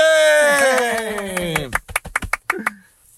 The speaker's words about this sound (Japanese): 拍手